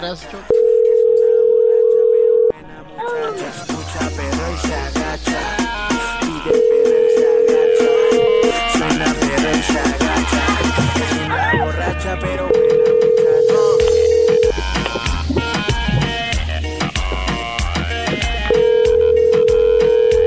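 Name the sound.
telephone dial tone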